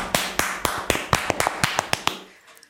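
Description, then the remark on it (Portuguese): A short clapping sample: about a dozen sharp, bright claps in a quick, slightly uneven rhythm, each with a brief ringing tail, stopping after two seconds and fading out. No one speaks. “Mete o sample das palmas agora.”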